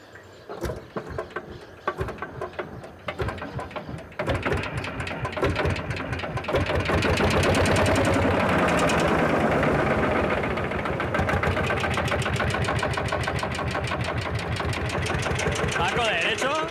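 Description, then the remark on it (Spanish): An old Pampa tractor engine on a farm, just repaired, is started: it chugs with uneven, rhythmic firing for a few seconds, then catches and roars louder into a steady, rumbling run that continues to the end. “poner en marcha su tractor Pampa es también una forma de transmitirle conocimientos a su hijo.”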